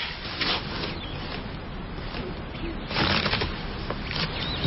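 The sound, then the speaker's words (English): Rustling and shuffling of items being moved around inside a backpack while someone searches for keys, with soft scrapes and a brief crinkly burst near the end, no voices. “Hey, uh, could you do me a favor and grab my keys out of my backpack?”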